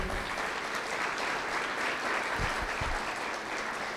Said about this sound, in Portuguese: Você está aí ainda? Aplauda o Senhor.